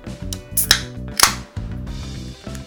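A can of Kirin Ichiban Shibori beer is cracked open: a sharp click, then a louder pop with a brief burst of fizzing hiss, over soft background music.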